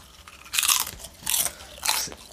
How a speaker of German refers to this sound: Ich nehme einen Chip.